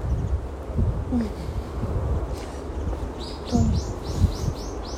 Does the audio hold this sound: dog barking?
no